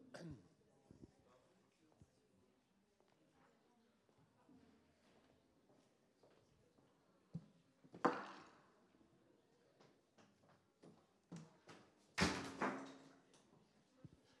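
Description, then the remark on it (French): A door is pushed shut before a class begins, with a sharp thud midway and a louder closing bang with a brief rattle near the end, faint movement and murmuring around it. “Bon, vais fermer la porte.”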